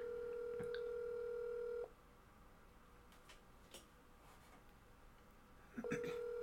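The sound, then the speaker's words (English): A steady electronic ringback tone on an outgoing phone call, a bright sustained tone that cuts off, pauses through faint room noise, then starts again near the end. “Hopefully she picks up, otherwise this is going to be really underwhelming.”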